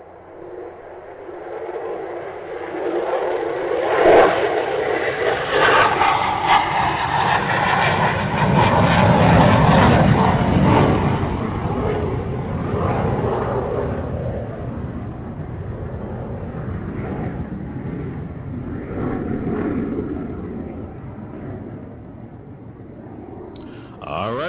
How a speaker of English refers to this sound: Okay, let me get this big iron bird on up off the ground. I rubbed my two little coins together and bought me an airplane, ladies and gentlemen.